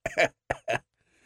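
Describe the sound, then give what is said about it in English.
A mocking, deliberate cough: a quick series of three or four sharp, exaggerated hacks, fairly loud, with no talking around them. “Sorry, that was my mocking cough.”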